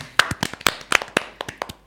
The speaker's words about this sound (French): Et, sans, les masques, eh oh, On peut nous applaudir pour cette double victoire